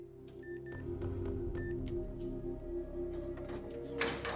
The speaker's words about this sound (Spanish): Y la puerta se abrió.